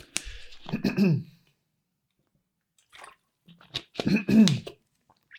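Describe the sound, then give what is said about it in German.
Someone takes a quick sip of water: two short, wet gulping and swallowing sounds separated by a quiet pause with faint small noises between. “Ich nehme mal ganz kurz einen Schluck Wasser.”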